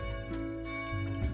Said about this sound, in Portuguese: É o nosso sino aqui está tocando. Então, se você escutar, é o nosso sino aqui da igreja tocando. Já é a missa, já tem que ir para a missa daqui a pouco.